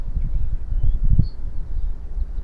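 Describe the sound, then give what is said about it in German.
Steady outdoor wind buffets the microphone with low rumbling gusts, while a few faint, brief, high bird chirps sound. “dann nimm dir vielleicht noch mal ein Beispiel an der Natur, wenn du das nächste Mal mal spazieren gehst, die Vögel zwitschern hörst und den Wind in deinen Haaren spürst, so wie ich das gerade hier, es ist so schön.”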